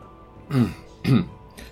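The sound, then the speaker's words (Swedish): Two fairly loud throat-clearing bursts about half a second apart, each a short raspy rumble, followed by a fainter third rasp, as a person clears their throat before reading from a paper; no talking. “Så harklar jag mig lite såhär.”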